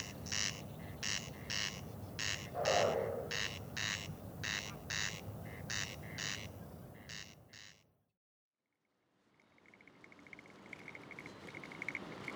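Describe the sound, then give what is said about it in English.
A bird gives a long run of evenly spaced, harsh pulsing calls over a low rumble, picked up by a shotgun mic, then stops. After a brief silence, a fainter, steady high call follows from a separate second bird further away, not an echo. “And then there's another call further away that I don't think is an echo. I think right. it's a separate bird.”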